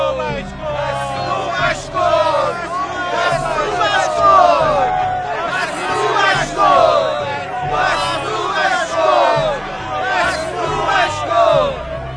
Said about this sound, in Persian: وقتی سران کاهنان و ماموران آنها او را دیدند فریاد کردند